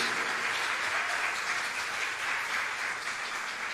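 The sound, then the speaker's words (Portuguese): Sustained audience applause for the Messiah, a dense, even wash of many hands clapping at steady loudness for several seconds, with no voices standing out above it. “Você pode dar um aplauso bem forte ao Messias, amém, queridos?”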